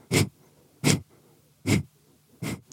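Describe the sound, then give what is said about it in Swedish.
Four sharp, forceful exhalations through the nose, a kapalabhati pranayama breathing exercise, evenly spaced about a second apart in a steady rhythm, fairly loud, with quiet pauses between and no talking. “Det eh, finns en pranayama-övning som heter. Eh, där man andas ganska snabbt ut genom näsan”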